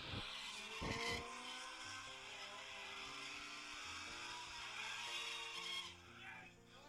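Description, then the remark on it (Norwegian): An Escort MK2 rally car engine revs hard and continuously, with screeching tire skids and sliding as the car drifts and spins pirouettes in Barbados, loud throughout, easing off near the end. “Det var en Eskort MK2 som drev og spant piruetter på Barbados.”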